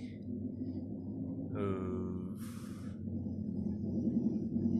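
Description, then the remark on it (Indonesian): Another motorcycle passes outside a house, its engine rumbling steadily with a rising, whining rev partway through before fading back into a low drone; a brief vocal hesitation is heard. “aduh ada motor lagi”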